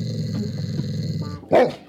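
A dog growls low and steadily for over a second, fairly loud, then breaks into a single sharp bark or snap near the end.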